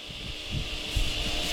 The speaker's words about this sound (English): Yeah, I couldn't tell if it was cicadas or the fan I was hearing.